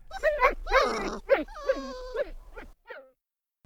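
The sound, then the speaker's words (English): A dog whimpers sadly in a string of drawn-out, wavering whines and moans, moderately loud, trailing off into a few faint short whimpers before falling silent. “We like sad dogs.”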